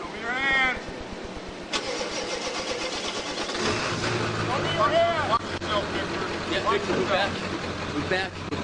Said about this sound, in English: The car turns on but doesn't move.